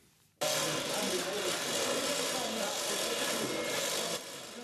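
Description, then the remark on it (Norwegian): A loud power tool used by workers at Christie's auction house in London late at night, crating Barbara Hepworth's sculpture 'Figure for Landscape' for shipping, starts abruptly and runs with a steady, harsh whirring grind for about four seconds, then cuts out, leaving a quieter background. “Dette er lyden av håndverkerne på Christies auksjonshus i London sent i går kveld.”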